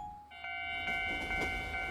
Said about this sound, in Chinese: 哇，是火车哎！